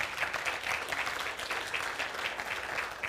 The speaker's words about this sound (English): Let's give them a, a round of applause.